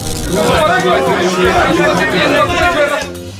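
A crowd of people chattering at once outside a polling station building, forming a queue: many overlapping voices make a steady, fairly loud babble with no single speaker standing out, continuing throughout before easing slightly at the end.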